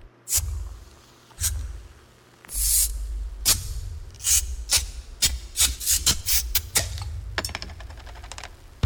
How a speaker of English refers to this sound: But this is a 30 second commercial, so here's some sound effects of bottles opening.